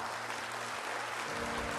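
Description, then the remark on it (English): An audience applauds steadily, a dense wash of many hands clapping at a moderate level with no voices over it, sustained evenly through the short stretch. “Go ahead, that's a good place to clap.”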